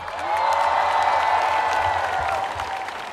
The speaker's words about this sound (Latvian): Tādēļ ar uh, vētrainiem aplausiem sagaidām Rīgas mērs Mārtiņš Staķis.